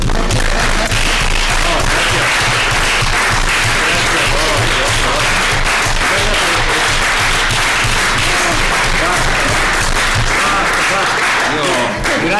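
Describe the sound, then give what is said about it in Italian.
Sustained audience applause, a dense, steady wash of many hands clapping at once, loud and continuous for about twelve seconds before easing slightly at the end. “Io farei un applauso.”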